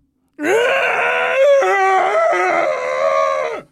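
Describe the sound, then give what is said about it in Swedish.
A voice imitates a long, loud bellowing groan, one sustained harmonic moan of about three seconds with a wavering pitch that drops off at the end, like a dazed person crying out. It imitates a cousin bellowing across a playing field while still in a coma-like state after a severe concussion. “Så han brölar bara.”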